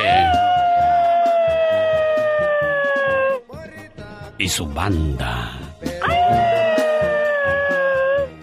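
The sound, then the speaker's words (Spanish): A person imitates a coyote with two long, loud, sustained howls that slowly sink in pitch, separated by a brief spoken phrase, howling on cue at the name of a singer. “Cuando yo diga …, tú aúlla, ¿ok?”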